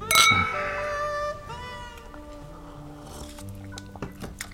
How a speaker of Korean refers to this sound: 네. 그런 의미에서 우리 건배할까? 음. 네. 자, 자, 자, 자.